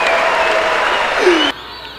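At a live show, a crowd applauds loudly with scattered cheers and whistles, a dense steady wash of clapping that cuts off abruptly near the end, leaving quieter background noise.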